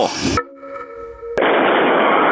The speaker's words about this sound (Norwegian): Nok en eksplosjon i Nybyen her. En dødelig bilbombe eksploderer utenfor lokalene til motorsykkelklubben Bandidos i Drammen. Jeg, jeg kan ikke komme forbi, for det er, det er så sterke flammer.